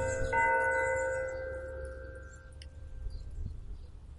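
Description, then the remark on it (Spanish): A church bell strikes once for the half hour at half past four. Its resonant tone rings out and slowly fades over a couple of seconds against a quiet background hum. “Las campanas. Son las cuatro y media.”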